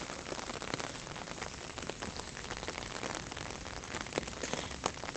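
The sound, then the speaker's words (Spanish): Steady rain patters on the taut fabric of an open umbrella overhead, a dense drumming of many drops with occasional sharper, louder taps, continuous and even throughout with no voices. “Me encanta el sonido de, estar debajo del paraguas. Me recuerda a, cuando estás dentro de una tienda de campaña y llueve.”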